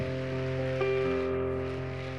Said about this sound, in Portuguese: Vamos dar uma salva de palmas a Jesus por essa linda família.